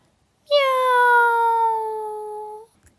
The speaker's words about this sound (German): Miau. Und noch einmal. Miau. Es klingt jämmerlich, ganz jämmerlich.